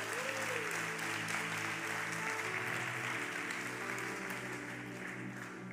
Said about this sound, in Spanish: Cuéntale un aplauso al Señor esta noche. Amén.